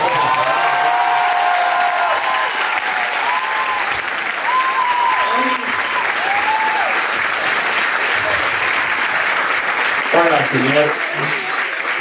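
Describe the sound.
Sustained audience applause welcoming a special guest to a studio show fills the whole stretch, a dense, steady wash of clapping hands, with voices occasionally rising above it and a brief burst of talk near the end.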